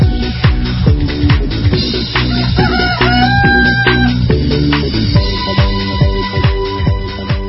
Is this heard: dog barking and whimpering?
no